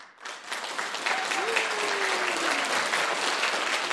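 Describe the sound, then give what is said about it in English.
A crowd claps steadily in sustained, dense applause for a guest who creates jingles, swelling in after a brief moment and holding at a fairly loud, even level, with a faint whistle-like tone sliding through the middle. “let's give Cary a sound of applause today. A round of applause.”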